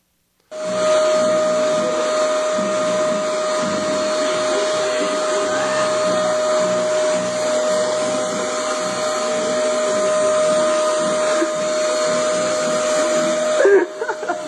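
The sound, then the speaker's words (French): A vacuum cleaner used by a woman runs steadily, its loud motor whine and airy roar holding constant for about thirteen seconds before cutting off with a couple of brief clunks. “Une dame qui passe l'aspirateur, mais il y a quelque chose de fondamental qu'elle doit saisir.”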